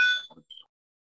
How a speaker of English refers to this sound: Man, we have the longest school bell I've ever heard in my whole entire life. It's like a whole like thirty seconds.